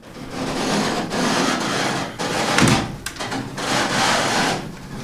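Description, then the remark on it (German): A windmill brake being released by hand inside the mill, with loud wooden creaking and grinding that comes in several long rubbing strokes separated by brief pauses. “Und hiermit machst du, pass auf, machst du bremslos.”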